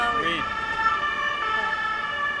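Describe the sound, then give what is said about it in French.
An ambulance siren wails steadily on boulevard Saint-Michel in the 5th arrondissement of Paris, its sustained tones loud, with a faint murmur of voices underneath. “On, laisse passer l'ambulance.”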